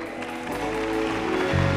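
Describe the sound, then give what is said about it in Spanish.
A church audience applauds God, clapping together in a dense, steady wash that swells slightly toward the end, with sustained musical tones ringing underneath. “Sí, dale un fuerte aplauso a Él.”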